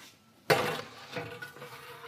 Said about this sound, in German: Der muss in den Ofen. Der quietscht fürchterlich, diese Ofentür. Das ist furchtbar.